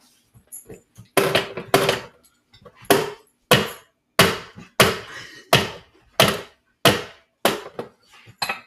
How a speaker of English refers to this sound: Okay, let me uh chop some onions really quick.